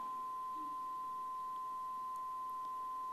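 A steady electronic beep tone holds unbroken for a few seconds, a clean, piercing pitch at moderate volume with nothing else around it but faint background hiss.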